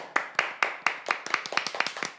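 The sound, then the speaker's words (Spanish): Sharp hand claps, steady and evenly spaced at first, then quickening into a busier patter like a few people applauding together for a birthday. Clear, with no voices. “Un aplauso, por favor.”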